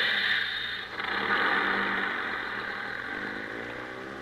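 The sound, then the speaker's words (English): A tour bus engine rumbles steadily, briefly dipping before swelling again as the bus pulls away, leaving Beverly Hills to drive out to Santa Monica, with a dense mechanical hum throughout and no voices. “And now, ladies and gentlemen, we leave Beverly Hills and drive out to Santa Monica.”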